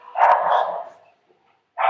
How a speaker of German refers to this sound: Der Hund bellt immer noch, ihr hört.